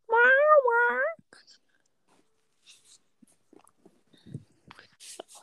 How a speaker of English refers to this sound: Ollie heard your voice and mew mewed at you. Hi, Ollie Schmolly.